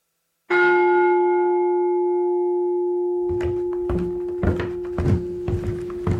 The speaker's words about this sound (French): Alors ça commençait, ce n'était pas une, une, erreur de notre technicien, c'était vous avez demandé d'abord un silence, puis des pas dans l'escalier, euh, puis alors qu'est-ce qu'il y avait après Une cloche. Une cloche et ensuite un violon.